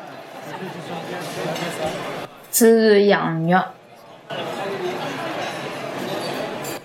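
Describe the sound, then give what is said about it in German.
Dense, busy chatter from a crowd of overlapping voices in a fully packed restaurant, broken midway by a single clear voice speaking alone for about two seconds before the crowd noise resumes; audio from a cooperative game in which players act as waitresses taking guests' orders. “Cosmopolit ist ein kooperatives Spiel und wir gehen da in ein vollbesetztes Restaurant”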